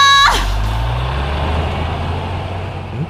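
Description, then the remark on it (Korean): A large bus pulls away without delay, a sharp hiss of air brakes releasing before the diesel engine rumbles and rises in pitch as it accelerates off, loud, with no talking. “버스는 지체 없이 떠났고 리조트에 전화해서 다른 버스가 없는지 물어봤죠.”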